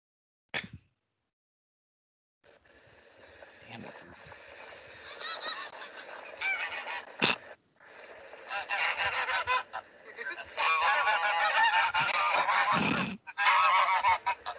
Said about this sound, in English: Someone's got a bunch of geese there, buddy. They honked us like the like the goose came. Yeah, of course. they honk on the way to the horses and on the way back.